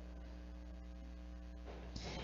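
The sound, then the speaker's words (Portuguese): An electric fan runs steadily, its motor giving a low, even hum with a soft airy whoosh; the sound shifts and brightens near the end, as if the speed setting changed. “Peraí, peraí, ventilador.”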